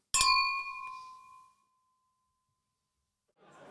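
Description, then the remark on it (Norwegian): Beer glasses clink together once in a bright toast, the ringing tone lingering and fading over about a second before a stretch of quiet and a soft rustle at the end. “Og da sier vi skål for den.”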